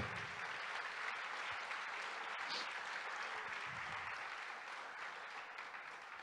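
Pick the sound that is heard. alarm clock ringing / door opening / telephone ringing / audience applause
audience applause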